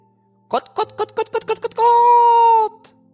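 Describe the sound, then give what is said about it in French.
A human voice imitates a hen clucking: about seven quick, rhythmic clucks followed by one long, drawn-out squawk, fairly loud with nothing else around it. “Entre-temps, les poules commencèrent à avoir faim et à glousser.”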